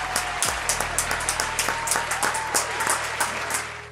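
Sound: audience applause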